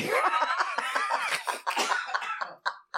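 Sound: cough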